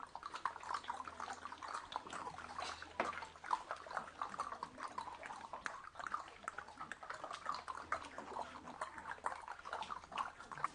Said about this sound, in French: Écoutez, une rivière. Allons-y, on pourra y boire.